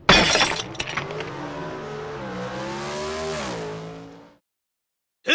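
A sharp crash of a truck's mirror glass being smashed opens, then a vehicle engine revs steadily with a rising, droning pitch for a few seconds before cutting off abruptly.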